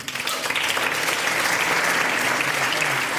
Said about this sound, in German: einen Applaus. Dankeschön.